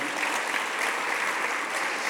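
An audience at a Spanish-language church service applauding for Jesus after a prayer, a steady, dense wash of many hands clapping at once with no pauses and no voices over it, holding an even loudness from start to finish.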